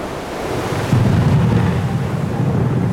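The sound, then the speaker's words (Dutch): A deep rumble of thunder from a storm breaking over the ship Lutina late in the afternoon surges in abruptly after a moment of windy hiss and rolls on loudly, with heavy low roaring and stormy wind-like noise throughout. No voices. “Laat in de middag storten de donderkoppen zich op de Lutina.”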